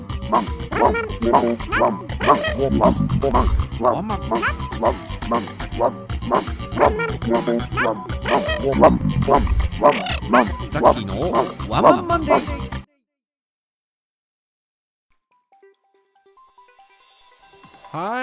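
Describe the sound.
A human voice imitates a dog barking, chanting quick, rhythmic 'wan' yaps that read out the digits of a phone number in a Japanese cosmetics advertisement, a steady loud string for about thirteen seconds before cutting off into near silence.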